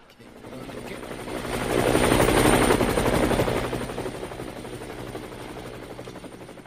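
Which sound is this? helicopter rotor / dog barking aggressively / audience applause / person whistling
helicopter rotor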